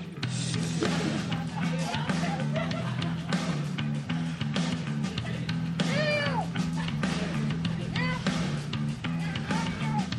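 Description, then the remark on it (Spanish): A cat meows a few times, drawn-out rising and falling cries over a steady low hum and faint background noise. “Claro, él, habla gato.”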